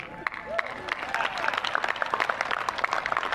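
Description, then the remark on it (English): A class in an audience breaks into steady, dense applause after a remark about the Navy, many hands clapping at once, with scattered cheers and a rising whistle or two over the clapping, fairly loud throughout. “I would think you'd have an opportunity when I say that about the Navy to clap, but being here together.”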